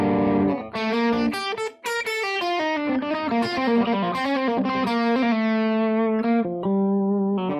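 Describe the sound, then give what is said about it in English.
An electric guitar plays a string of minor bar chords in a guitar lesson, formed by taking the middle finger off the major bar chord shape, with a gritty, distorted tone, shifting chords every fraction of a second and letting the last ones ring out, with no talking. “Has that kind of sound, but minor.”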